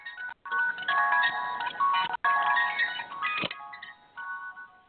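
A tinny mechanical tune plays in bright, evenly spaced notes, like a jack-in-the-box crank melody, with a couple of brief gaps and a slightly distorted, phone-like quality.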